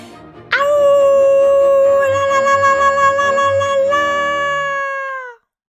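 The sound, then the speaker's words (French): A wolf lets out one long, loud howl, holding a steady high pitch for several seconds before sliding down and fading out, with a faint low rumble beneath it. “Et c'est pour cela que la nuit venue, tu entends le loup crier”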